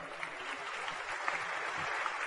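A crowd claps steadily, a dense wash of many hands with no breaks, holding at an even, moderate loudness throughout with a few sharper claps poking out.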